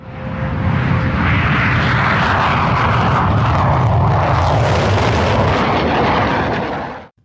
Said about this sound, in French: Oui, ça c'est le bruit d'un Mirage 3 qui passe au-dessus de votre tête.